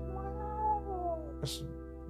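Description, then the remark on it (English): A person's voice imitates a cat's drawn-out yowl, one wavering cry that slides downward in pitch, then ends in a short breathy hiss. Close and moderately loud. “It's like dying cat just”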